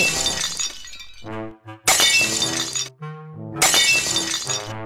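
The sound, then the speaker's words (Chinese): A clay jar shatters on the floor in three loud crashes, each a bright burst of breaking pieces followed by a ringing, tinkling tail that fades before the next smash. “老鼠爬上灶台，鸭子躲进水桶，鸽子胡乱扑腾，坛子碎了一地。”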